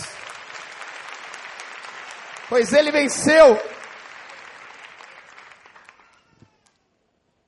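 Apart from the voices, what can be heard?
audience applause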